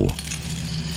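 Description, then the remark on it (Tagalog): An iron chain jangles and clinks in a continuous, scraping rattle as it is dragged along a hallway floor at midnight, over a steady low background hum. “May naglalakad daw tapos may hilahilang kadena.”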